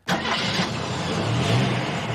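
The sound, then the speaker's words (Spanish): A car engine cranks and catches abruptly, settling into a steady, loud rumble that continues for a couple of seconds with no voices. “Coche.”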